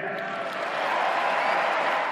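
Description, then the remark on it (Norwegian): Steady roar of a large crowd in a huge, packed hall clapping and cheering for Donald Trump's pledge to dismantle the Iran nuclear deal, a dense continuous wash of applause that swells slightly and holds at a fairly loud level throughout. “Jeg skal ødelegge den katastrofale atomavtalen med Iran, sier Trump, og får stor applaus.”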